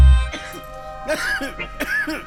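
A few short, raspy coughs burst out close up, over steady, sustained musical tones humming underneath.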